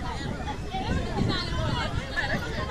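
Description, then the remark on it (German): A steady hubbub of many overlapping voices as many schoolchildren in uniform chatter and call out on a large open square, a group of them playing football, with no single voice standing out. “Auch die Geräuschkulisse ist wie auf dem Schulhof.”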